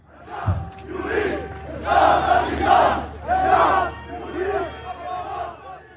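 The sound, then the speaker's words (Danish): A large crowd of angry young male protesters in Lebanon shouts and chants in Arabic in loud, rhythmic bursts of many voices, rising and falling in repeated waves without a break; the word "thavra" (revolution) can be recognised. “Og mit arabisk er ret begrænset, så jeg ved ikke helt, hvad det er, de, øh, hvad de råber eller synger.”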